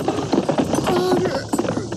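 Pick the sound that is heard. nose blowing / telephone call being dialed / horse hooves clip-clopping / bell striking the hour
horse hooves clip-clopping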